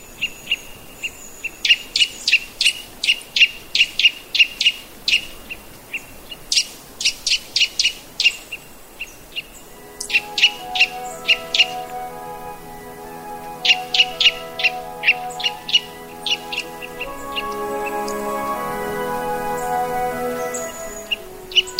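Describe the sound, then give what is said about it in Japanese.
Eurasian nuthatch (white-bellied Hokkaido race) song recorded in Erimo, Hokkaido, Japan: bright, rapid series of repeated piping notes, with nasal, harmonic calls rising beneath them later. Clear, with no voices. “北の森では今年もいち早く白原五十からがさえずり始めることでしょう”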